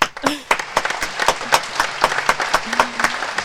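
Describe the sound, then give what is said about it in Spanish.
A studio audience claps steadily for a few seconds to welcome deputy Carla Carrizo, dense overlapping handclaps, with faint voices calling out beneath the applause. “Vamos a darle un aplauso a la diputada Carla Carrizo, por favor.”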